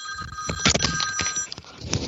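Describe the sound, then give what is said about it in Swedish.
A telephone rings with a steady, bright electronic trill, sustained tones holding through the whole stretch with rapid pulsing, clear, no one speaking over it; the call is coming from Buffalo. “Ett, ett ögonblick, det ringer från Buffalo så jag måste ta det.”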